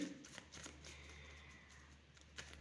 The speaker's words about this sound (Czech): Uh, co se týče, co se týče uh, partnerských vztahů, tak na to ještě vytáhnu další karty.